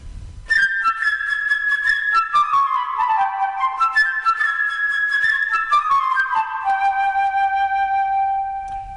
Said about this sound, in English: In the tale you are about to hear, each character is represented by a different instrument of the orchestra. The bird by the flute